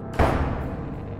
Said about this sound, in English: The footsteps then turned, marched down the hall into the living room and then kitchen before ending the entire ordeal abruptly with a loud bang of a slammed door.